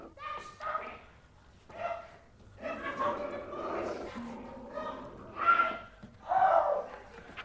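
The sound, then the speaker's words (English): A dog barks and yelps in a frantic series of loud bursts as it attacks a woman, with vocal cries tangled in between as the scuffle builds toward the end. “Apparently, an entire series of mistreatment of her pet comes back to bite her, quite literally, and he can be heard to attack her.”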